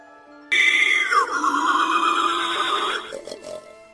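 A wild boar lets out a loud, harsh grunting squeal that lasts a couple of seconds before trailing off into rougher snorts, with no talking.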